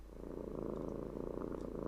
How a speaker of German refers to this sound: Die Katze schnurrt.